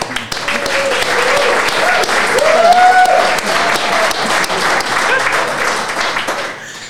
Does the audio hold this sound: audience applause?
yes